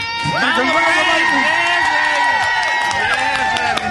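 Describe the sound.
A lively burst of applause and cheering on a morning show, celebrating a colleague's expected baby, fills the whole stretch, loud and steady, with overlapping whoops and shouting voices rising and falling over a constant wash of clapping.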